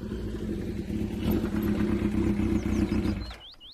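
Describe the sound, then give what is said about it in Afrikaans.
A motorcycle engine rumbles, throbbing steadily as it pulls up in a home's driveway in the morning, then cuts off abruptly near the end, leaving a few faint chirps of birds in the quiet. “Maar die volgende oggend hoor sy 'n motorfiets buite in hulle oprit stilling.”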